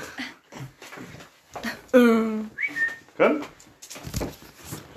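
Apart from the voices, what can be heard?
dog whimpering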